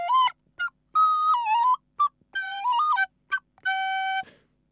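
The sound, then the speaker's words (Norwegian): A flute plays a short, bright melody alone: a few quick staccato notes, longer held tones with small pitch slides, and a final sustained note, loud. “Innimellom så tar jeg pause fra fløytespillingen og hører på bankebrett på Radio Revolt onsdag klokken 19.”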